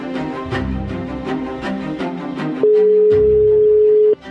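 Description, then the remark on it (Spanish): A loud, steady telephone tone sounds for about a second and a half, cutting in over rhythmic background music, as a phone call placed again goes unanswered. “ya no coge.”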